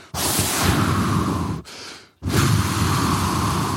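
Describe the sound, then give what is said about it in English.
A voice imitates a pregnant woman's heavy breathing during Braxton Hicks contractions while driving in a car: a long, loud, breathy inhale, a brief pause, then an equally long forceful exhale, with no speech. “we're driving to the house and um, I'm noticing she's like breathing heavy and uh,”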